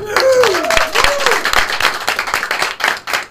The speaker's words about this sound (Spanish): Es la primera vez que los aplausos no son grabados en este programa. ¡Otro aplauso! ¡Otra vez!